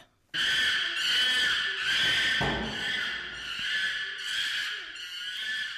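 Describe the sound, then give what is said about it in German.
Loud, shrill chimpanzee screams pour out in a continuous series of rising, pulsing shrieks, intense, with no pauses and no talking. “Ich sag Schimpanse.”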